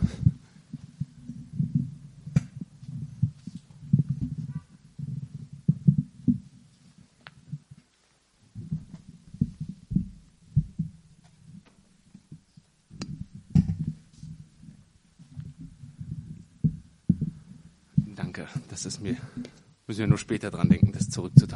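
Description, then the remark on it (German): Muffled thumps and bumps of microphones being handled and swapped before a sermon, coming in irregular clusters, ending with a louder burst of scraping and rustling contact noise. “ich tausche mal gerade die Mikrofone.”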